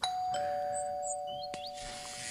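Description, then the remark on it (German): A doorbell at a house in St. Pauli rings with a clear two-tone ding-dong chime whose ringing tone lingers, followed by a sharp click and a brief hiss near the end. No one speaks. “So, hier ist sie, Hausnummer. So, dann klingel ich mal.”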